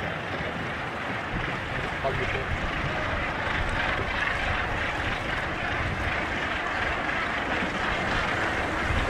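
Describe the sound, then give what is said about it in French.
A Zodiac inflatable boat's outboard motor drones steadily at sea in a long swell, a continuous rough roar mixed with wind and water noise that holds unchanged throughout. “vous avez coupé le moteur du Zodiac.”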